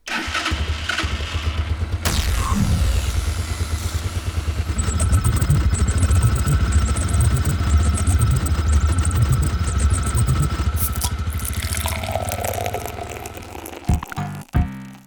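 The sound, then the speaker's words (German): After a code is typed in, a pull-cord engine is cranked by pulling the cord and catches with a sharp burst, then runs loud and rough with a steady rattling drone for about twelve seconds before cutting out. “Da tippen wir die Scheiße mal ein, ziehen an der Schnur und zack.”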